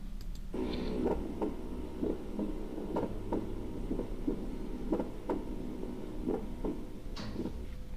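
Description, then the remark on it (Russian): A recording of heartbeats with a split first heart sound and a slight arrhythmia, a steady series of dull thumps repeating about once a second over a low background hum. “Итак, расщепление первого сердечного тона.”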